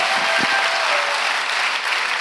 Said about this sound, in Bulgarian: О, ако ръкопляскаш, ръкопляскай, като че наистина вярваш в това, го е проповядал.